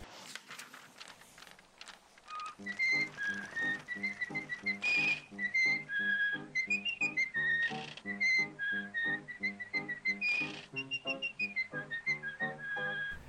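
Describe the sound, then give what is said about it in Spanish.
Mickey Mouse whistles a cheerful, cartoonish tune, as in the Disney animation seen before Disney films, a bouncy melody over a steady, rhythmic instrumental accompaniment, clear and upfront after a brief opening flourish, with no talking. “Ya saben, el típico de animación que logramos ver antes de cada película de Disney con Mickey silbando.”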